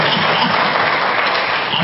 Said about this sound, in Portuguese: Dá mais um aplauso a esse Jesus maravilhoso. Coisa boa, coisa boa.